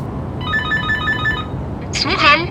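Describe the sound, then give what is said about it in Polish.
An intercom buzzer, rung to reach a neighbour on a housing estate on a day of fine drizzle and light mist, sounds with a bright, pulsing electronic tone for about a second, followed by a brief voice crackling in through the speaker over a low background hum. “Zadzwonił domofonem do sąsiadki.”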